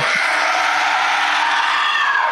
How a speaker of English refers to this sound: You guys see blue shards of something flying through the air. And you hear that scream